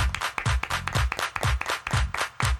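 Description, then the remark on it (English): Hands clap in a quick, steady rhythm, about four sharp claps a second, loud, with a low thumping undertone running beneath the beat. “clap your hands.”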